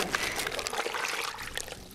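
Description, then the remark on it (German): Water pours and trickles steadily into a plastic bag holding a wood sample, a branch disc being bagged and watered so it holds together, a continuous splashing and gurgling with faint crinkling, lasting the whole moment without any voices. “Das wird jetzt eingetütet und wir packen das in Wasser, damit das schön zusammen bleibt.”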